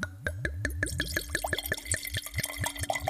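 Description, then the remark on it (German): Very cold white wine, a 2014 vintage, being poured into a glass, a rapid series of glugging gurgles with rising pitch as the glass fills, steady and fairly loud, with no talking. “Ich trinke derweil noch einen Schluck. Ich habe hier allerdings einen sehr speziellen. Das ist ein, äh, das ist ein ganz kalter Weißwein.”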